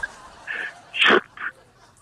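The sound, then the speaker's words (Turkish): A person imitates a whip crack with their mouth: one sharp, hissy burst in the middle, framed by a couple of short voiced squeaks before and after, fairly loud. “… kırbaç sesi yap bir daha.”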